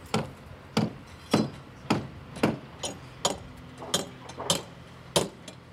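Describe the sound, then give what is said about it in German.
Hammer blows strike wood in a steady, slightly uneven rhythm, about ten sharp knocks with other faint knocking overlapping, as about 50 workers in helmets and safety vests build formwork for the outer walls of two factory halls at a construction site. “Rund 50 Arbeiter, korrekt bekleidet mit Helmen und Warnwesten, verschallen die Außenwände für zwei Werkhallen.”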